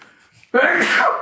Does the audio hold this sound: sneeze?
yes